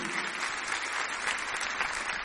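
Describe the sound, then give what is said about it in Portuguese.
A church audience claps in praise to God, many hands making a dense, even wash of applause that holds at a constant loudness for a couple of seconds with no voices standing out. “Se você recebe isso, dá uma salva de palmas para Ele com uma aprovação, dizendo amém, Jesus.”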